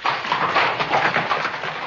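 Hooves of a horse-drawn cab in 1880 Manhattan clip-clop in a steady, brisk rhythm, moderately loud, with a faint rumble of wheels underneath and no voices.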